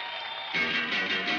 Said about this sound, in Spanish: ¿por qué aplaude?